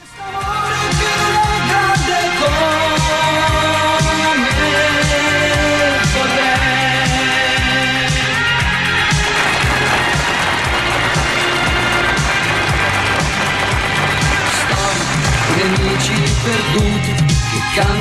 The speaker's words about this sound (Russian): Это он под дождем поет. Вот этот вот звук, это был дождя. Я нашел отрывок из какой-то телевизионной передачи старой 82 -го года.